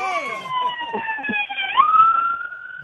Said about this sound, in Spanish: Bueno, aquí está pasando ahora mismo una ambulancia